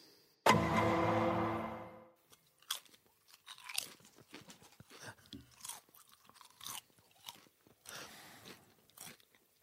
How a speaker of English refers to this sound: consuming fistfuls of our favourite product, the only sponsor of the show to this point, Ajita's Veggie Deli Crisps.